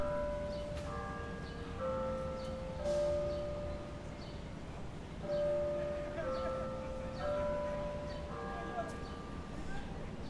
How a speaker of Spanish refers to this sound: Este, estas campanadas que suenan, en realidad, son mentiras, son un altavoz